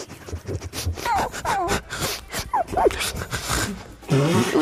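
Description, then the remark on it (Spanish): Several shrill, squealing cries like a distressed dog, rising and falling in short bursts over a rough, scratchy background, with a lower whining moan near the end. “Pero un perro que le están apretando el huevo.”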